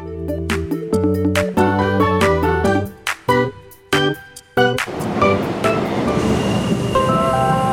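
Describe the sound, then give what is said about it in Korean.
A bright, stepping electronic jingle plays for a few seconds, then gives way to a steady, rushing rumble of a subway train in motion, fairly loud. “지하철 에어컨 최고야.”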